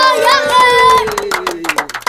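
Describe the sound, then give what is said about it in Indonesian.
A voice holds a long, slowly falling tone, then a small audience breaks into scattered, irregular hand clapping that is fairly loud and lasts about a second. “kita tepuk tangan dong teman-teman”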